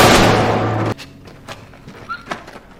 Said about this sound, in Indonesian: Ketika Ali teralihkan suara tembakan tadi, dia menukar kantong Ali dengan kantongnya sendiri yang sudah diisi banyak kerikil.